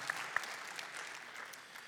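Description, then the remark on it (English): An audience claps during a sermon, a dense patter of many hands with a few sharper individual claps standing out, sustained evenly at moderate loudness with no voices over it. “That's okay, yeah, you can clap.”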